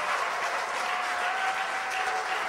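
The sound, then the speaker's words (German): Steady applause from a church audience, given in honour of Jesus, a dense wash of many hands clapping continuously at an even, fairly loud level throughout, with no voices standing out. “Gebt ihm einen kräftigen Applaus.”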